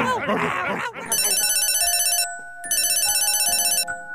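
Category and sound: household object, telephone ringing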